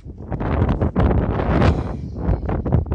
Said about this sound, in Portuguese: Mas, puta, com subida e vento contra é foda.